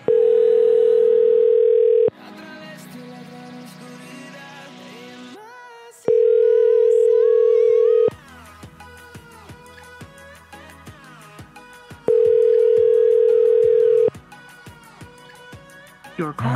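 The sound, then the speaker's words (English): A telephone ringback tone sounds three times on an unanswered call, each a steady two-second purr separated by roughly four-second pauses, loud and clear, with voices and busy background sound filling the gaps between rings. “I've really had to fight to make them pick up this week.”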